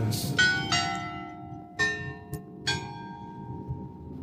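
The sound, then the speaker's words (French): A large clock bell chimes several times, each strike ringing with bright overtones that hang and slowly fade, over a low rumbling background. “Ce magnifique gros horloge qui s'exprime.”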